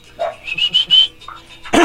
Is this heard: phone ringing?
no